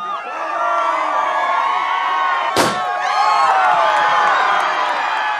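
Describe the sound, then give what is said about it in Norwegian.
A single sharp, loud bang of a starting gun fired into the air cracks out midway through, set against a large crowd cheering and shouting continuously from start to finish. “The gun's in the air. The finger is on the trigger.”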